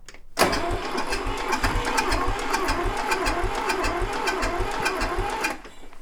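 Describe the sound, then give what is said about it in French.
A machine's engine starts abruptly and runs loudly for about five seconds, a steady mechanical drone with fast rhythmic clattering and low thumping pulses, then cuts off. “C'est un engin qui longtemps j'ai pas conduit ça.”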